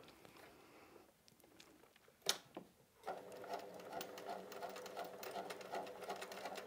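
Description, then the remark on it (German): A sewing machine starts up after a couple of sharp clicks and then stitches steadily with a rapid, even mechanical patter, with no talking. “Ja, sie näht toll, aber das hörte sich gerade so un so, mhm. so, leise an.”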